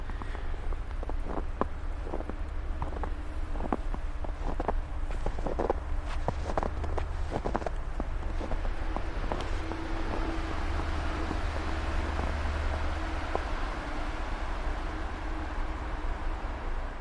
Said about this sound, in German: Auf jeden Fall knirscht der Schnee so wunderbar. Man ist das ja kaum noch gewohnt, zumindest nicht hier im Flachland nördlich von Stuttgart.